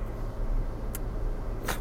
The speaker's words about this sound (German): den ich einfach hier im Auto aufnehme, mit Hintergrundgeräuschen, mit kurzweiligen Aussetzern bezüglich anderer Autofahrer, einer wahrscheinlich ziemlich miserablen Tonqualität.